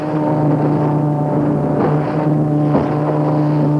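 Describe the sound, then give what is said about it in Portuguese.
A steady boat engine drones throughout, with water sloshing and a couple of sharper splashes of waves slapping against the hull near the middle, on the Tietê River in Brazil between the Ibitinga and Provisão reservoirs, with waves up to about a meter and a half high in weak wind. No one speaks. “Vocês vão poder até ouvir ao fundo o barulho da água batendo no barco.”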